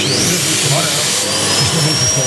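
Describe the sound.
A vacuum cleaner roars steadily and loudly as the 'Vysavač' jingle of Bikers Rádio Doupě, a dense rushing hiss with a thin high whine running through it, while a muffled voice murmurs underneath.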